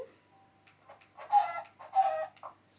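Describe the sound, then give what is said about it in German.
Chickens cluck in a short run of calls, two louder, drawn-out clucks in the middle among softer ones, with no talking. “Das sind noch Hühner.”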